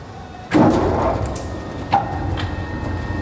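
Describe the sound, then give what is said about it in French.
A large tannery tumbling drum, loaded with hides to soften them, lurches into motion after its brake is released, with a heavy wooden clunk, then a steady rumbling churn broken by a single dull thud as it rotates. “Il faut qu'elle est lancée, ça va. Voilà, ça c'est le plus bruyant”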